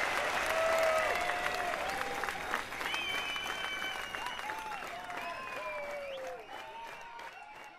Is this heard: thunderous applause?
yes